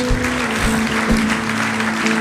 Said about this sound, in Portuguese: Vamos aplaudir o nosso Deus, vamos.